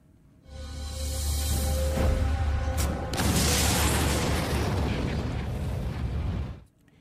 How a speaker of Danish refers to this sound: Ja, en eksplosion hørte vi her. Det er attentatet på Adolf Hitler øh, 20. juli 1944.